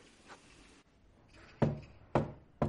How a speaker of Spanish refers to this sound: llama a la puerta de su casa.